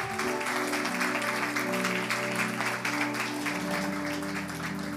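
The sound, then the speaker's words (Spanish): Sustained studio audience applause for everyone who said the declaration 'Jesús, te necesito' for the first time. A dense, steady patter of many hands clapping at an even loudness fills the whole stretch, with a low tonal hum underneath and no one speaking. “Yo creo que podemos dar un aplauso a toda la gente que lo hizo esto por primera vez.”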